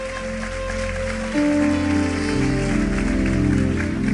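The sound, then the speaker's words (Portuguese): A church audience applauds God in a dense, steady patter of claps over sustained keyboard chords, before prayer, and the whole sound swells louder partway through and holds there. “Vamos aplaudir a Ele e vamos orar e vamos embora.”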